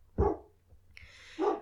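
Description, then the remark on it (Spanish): A dog barks twice, with a pause between the barks, fairly loud. A hiss of noise fills the gap between them. “Ese es mi perro.”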